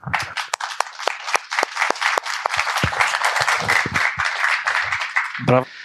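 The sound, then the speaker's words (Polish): An audience applauds the guests steadily, a dense wash of many hands clapping with sharp individual claps standing out, continuing loudly for several seconds before a voice briefly cuts in near the end. “E, brawa dla Was.”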